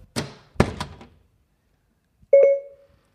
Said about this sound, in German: Frankie, schließe die Tür.